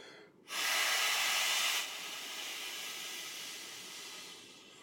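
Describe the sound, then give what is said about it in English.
A loud, breathy rush of air blown into a microphone, one long exhale that starts abruptly, then eases into a softer, steady hiss that trails off. No one speaks. “By the way, the Hebrew word for breath, I'm breathing into this, right?”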